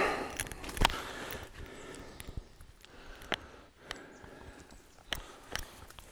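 Donkey hooves clip-clop in an irregular, unhurried rhythm, each sharp knock standing out over a soft outdoor rustle, with no one talking.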